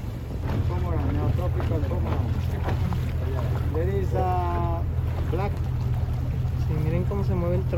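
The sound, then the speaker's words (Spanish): A boat's motor drones steadily and loudly as it moves along a river in the Amazon during an excursion, a constant low rumble with wind buffeting, while people talk over it throughout. “Te dan una cervecita aquí en el bote.”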